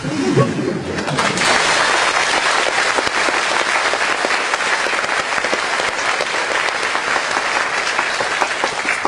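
Sustained, loud applause from an audience, a dense wash of many hands clapping that keeps a steady level for about nine seconds, with a brief voice at the very start.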